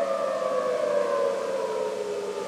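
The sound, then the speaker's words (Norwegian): An air raid siren wails loudly in Baghdad, Iraq, its sustained tone sliding slowly downward with a harmonic overtone, continuous throughout with no voices. “Flyalarmen har gått i Iraks hovedstad Bagdad, og det er hørt flere eksplosjoner i byen.”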